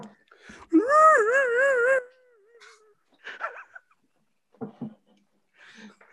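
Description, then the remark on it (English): A person imitates a rhino with a loud, wavering, moaning call lasting about a second, followed by a few short, quieter vocal sounds and murmurs. “No, what does a rhino sound like?”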